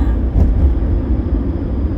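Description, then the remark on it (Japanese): A steady low rumble fills the cabin of a moving car as it is driven while a broadcast is recorded inside it, road and engine noise droning evenly and fairly loud with no voices. “なんだろう車こうやって走りながら撮るっていうことが一番何て言うのり取りやすいっていうか何ていうのいいんですよね”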